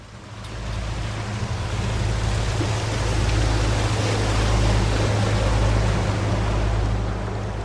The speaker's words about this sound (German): Ein ungewöhnliches Geräusch holt mich aus meinen Südseeträumen. Ein riesiger Passagierdampfer hält vor dem Lindauer Hafen direkt auf uns zu.